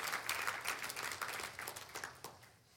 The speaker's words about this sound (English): Come on, so give the Lord a hand clap.